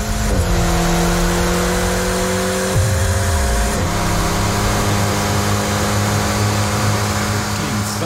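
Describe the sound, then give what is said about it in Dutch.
An Alpine A110R sports car engine runs hard on a dynamometer (rolling road) with a rear wheel spinning and the speedometer climbing, a loud, steady droning roar whose pitch drops and climbs again as it shifts through gears, with no voices. “Daarin zie je een achterwiel op een rolbank. En vervolgens zie je dashboard de snelheidsmeter eh, oplopen.”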